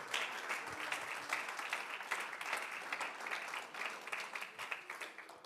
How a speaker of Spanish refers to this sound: ¿Alguien le puede dar a Dios un aplauso de agradecimiento? por su maravillosa presencia.